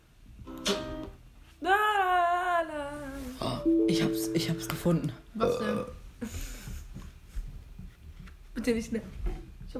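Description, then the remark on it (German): A loud, drawn-out burp with a wavering, falling pitch rumbles for a couple of seconds, surrounded by bursts of excited voices and other vocal noises. “Da habe ich auch einmal übelst gerülpst.”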